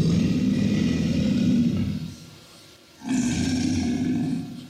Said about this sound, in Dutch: Alligator, low frequency, really low.